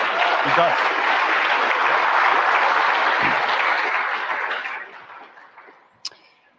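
A crowd applauds Danielle, author of the book Fed Up and former advisor to the Federal Reserve Bank of Dallas, as she joins the stage: dense, loud clapping for about four seconds, then the applause thins and fades away, ending with a single sharp click.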